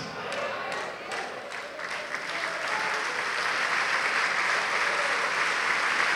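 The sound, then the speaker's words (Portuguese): An audience claps steadily, the applause starting with a few distinct claps and swelling into a dense, sustained roar of hands that holds loud through the end. “Diga, diga enquanto você aplaude.”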